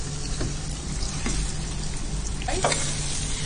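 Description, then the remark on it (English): Potatoes frying in lots of oil in a wok, left about 10 minutes to brown: a steady sizzle with scattered crackles and a few sharper pops, continuous throughout with no one speaking. “now you go back to your rice and again it's just sizzling”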